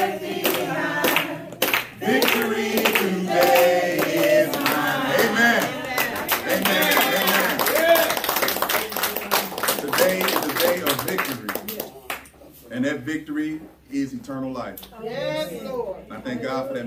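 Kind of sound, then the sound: crowd, audience clapping along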